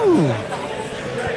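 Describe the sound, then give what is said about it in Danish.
Football fans chanting during the European Championship, heard from between two crowds: a loud voiced call slides down in pitch at the start, then a dense, steady wash of crowd voices carries on for the rest of the moment. “jeg står lige midt i en slagsang, der går... Jeg står midt imellem to menneskemængder”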